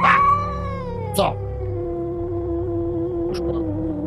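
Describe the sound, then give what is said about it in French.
A cat lets out a long, drawn-out yowl, its wavering pitch sliding slowly downward, fairly loud, with a couple of brief scuffling noises partway through. “Tu vois que la, la fenêtre de la, de la véranda est entrebâillée et il y a un autre chat qui rentre.”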